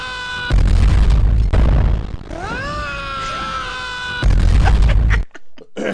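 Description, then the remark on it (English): A 'mail scream' sound effect plays twice back to back, a rising, wavering shriek framed by loud crashing bursts of noise, loud with no talking over it. “Load it up. Mail scream times two.”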